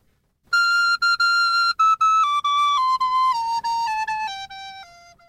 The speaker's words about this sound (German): Ihr hört, ganz hohes Instrument. Sie ist sehr klein, deswegen heißt sie Sopranino. Und das ist jetzt der höchste Ton, den ich heute spiele, ist eigentlich der mittlere Ton.